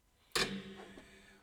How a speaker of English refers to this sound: Oh, that sound was me hitting the uh, the podcast mic stand. And I'll leave it in because that's how this podcast works.